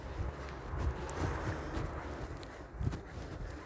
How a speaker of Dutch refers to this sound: Ik hoor mijn eigen lopen.